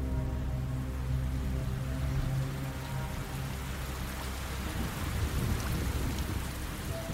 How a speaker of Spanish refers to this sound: La lluvia comenzó a caer, empapando a las tres mujeres y llenando de lodo el suelo.